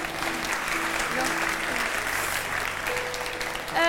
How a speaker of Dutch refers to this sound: Precies, applaus ehm, nog even daarvan.